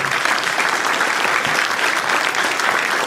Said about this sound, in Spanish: Dele un aplauso al Señor ahí, iglesia.